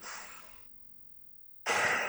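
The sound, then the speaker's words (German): Two audible nasal breaths during a simple seated breathing exercise, a soft airy inhale through the nose lasting over half a second, a pause of near silence, then a louder, hissing exhale. “Äh, setzt euch bequem hin und haltet euren ähm, Mund und, und, und euer Gesicht ganz entspannt und normal und atmet durch die Nase ein”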